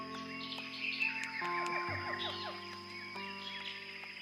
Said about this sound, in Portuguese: Tenta imaginar o que é floresta amazônica? Um emaranhado de rios, lagoas e igarapés. Árvores grandes, árvores menores, incontáveis insetos e uma infinidade de pássaros com seus cantos e cores diversas.